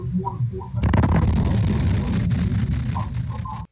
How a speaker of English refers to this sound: An explosion rocking a New Hampshire neighborhood. The blast you just heard there was so loud it even shook a doorbell camera. So, what was it? It was part of a gender.